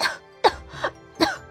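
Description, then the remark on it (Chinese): A few short, feigned coughs, three or four raspy bursts spaced unevenly over about a second and a half, with a throaty, somewhat forced quality and no talking around them. “说着，慕容羽还象征性的咳嗽了几声，继续嚎啕大哭。”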